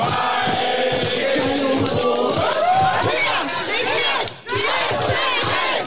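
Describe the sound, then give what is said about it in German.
A dense crowd of young supporters from the party youth organisations Jusos and Junge Union shouts and chants loudly at a political event on the sidelines of a TV debate between two lead candidates, voices overlapping in a continuous roar with rhythmic bursts, briefly dipping before swelling again. “Die Jugendorganisation der beiden Parteien Jusos und Junge Union haben sich auf jeden Fall schon in Stimmung gebracht, diese Woche am Rande des TV-Duells der beiden zweiten Spitzenkandidaten.”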